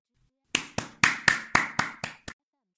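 crowd, audience applause

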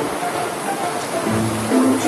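nature, rain falling

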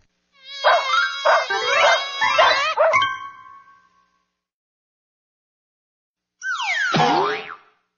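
animal, dog barking and howling

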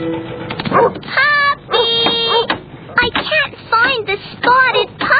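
animal, puppy yipping and barking

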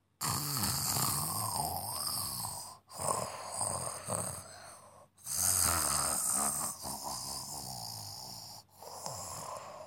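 human body sound, snoring

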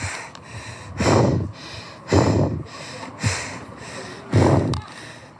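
human body sound, heavy panting

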